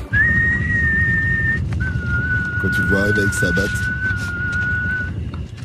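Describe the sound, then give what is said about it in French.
An eerie whistled tune of two long, steady held notes, the second slightly lower and stretched out, sounding clear while a man talks underneath; the whistle of a bat-carrying villain character. “Et lui, il faut dire qu'il a le sifflet le plus flippant du game.”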